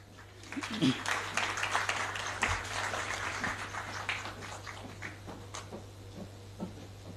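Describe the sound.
Audience applause after a poem reading as a woman comes forward: a dense, steady patter of many hands clapping for several seconds, fairly quiet, with faint murmuring voices mixed in and the clapping thinning slightly toward the end.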